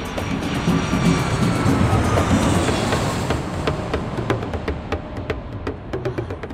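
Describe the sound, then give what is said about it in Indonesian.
A loud airplane roars past, its engine whine sliding downward, then settles into a steady rumble with scattered sharp knocks as it touches down and rolls along, landing in London. “Beberapa waktu kemudian, pesawat itu wush, mendarat di kota London.”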